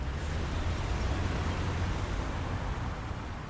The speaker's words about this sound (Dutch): En dan, eh, dan denk je op een gegeven moment wel van nou, er is wel erg veel verkeer eh, hier.